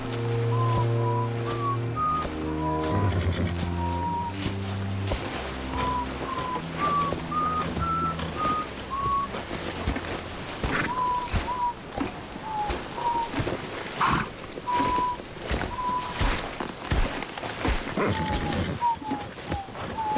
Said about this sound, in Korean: 네, 휘파람 소리 들으셨나요? 멜로디가 익숙하죠. 사일러스가 휘파람으로 부르는 이 노래.